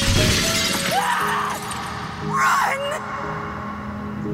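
Bedroom window glass shatters loudly, with a sharp crash near the start and a second burst of breaking, tinkling shards a moment later, over a dense low background.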